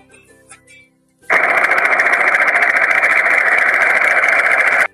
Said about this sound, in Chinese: 又一阵直升机的响动，只见直升机缓缓的开向了天空。